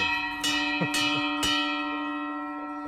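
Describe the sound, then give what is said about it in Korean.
A small hand bell, a gift used to call the owner, is struck three times at an even, brisk pace, its bright metallic ring lingering and slowly fading after the last strike. No one speaks. “요거는 이제 나 부를 때, 주인 부를 때 치는 거예요, 이게.”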